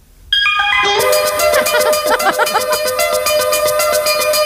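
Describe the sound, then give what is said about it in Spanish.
A sped-up 1985 pop song plays loudly after a brief quiet start, its bright, high-pitched melody riding a fast, steady pulsing beat, with no one talking over it. “Y vamos a escuchar un peazo tema del año 85”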